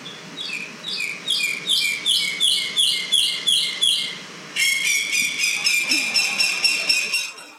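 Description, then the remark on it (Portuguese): Birdsong heard in a toilet at a stop along the A1: birds chirp steadily in rapid, evenly repeating bursts, the phrases turning quicker and denser partway through, over a soft background hiss with no one speaking. “Eu pensei, passarinhos, que agradável.”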